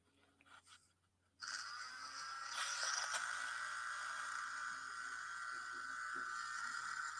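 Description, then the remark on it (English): A blender switches on abruptly after a brief quiet moment and runs steadily with a loud, whirring motor whine that holds to the end, with no talking. “And I want to actually do a little blender real quick, though, man.”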